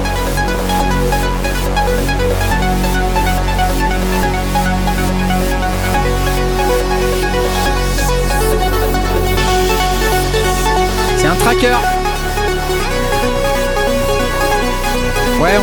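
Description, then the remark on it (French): Loud electronic music demo from a Dirtywave M8 handheld tracker synthesizer plays on its own, with a steady pulsing beat, sustained buzzy synth tones and a couple of sweeping, zapping effects late in the piece. “Tous les sons, c'est les sons qui sortent du truc.”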